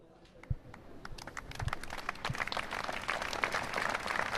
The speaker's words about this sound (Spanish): interrumpido por los aplausos de decenas de personas concentradas, entre ellos vecinos, amigos, conocidos de allegados